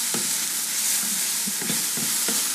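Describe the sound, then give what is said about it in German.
Button mushrooms sizzle steadily in a hot, very dry pan with a little oil, a constant bright crackle, while a spoon or spatula stirs them with several soft scraping knocks at irregular intervals. Fairly loud, with no talking. “Und ich kümmere mich um die Champignons.”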